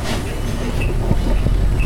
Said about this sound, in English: Doors are opening. Yeah, it's a good space. All right, I'm gonna move over one seat so that we can start giving more seats to people. The bus is filling up.